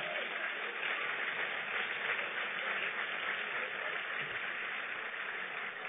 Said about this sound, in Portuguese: Pode aplaudir a ele.